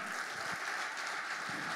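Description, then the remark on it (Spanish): An audience claps steadily to give applause to the Lord, a dense, continuous wash of many hands with no pauses, fairly loud and without any voices on top. “Si le vas a dar un aplauso al Señor.”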